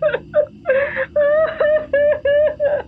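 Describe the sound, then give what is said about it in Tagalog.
A woman whimpers and cries in a series of short, high-pitched, wavering sobs, about seven or eight in quick succession, fairly loud with no other voices. “bakit ka umiiyak?”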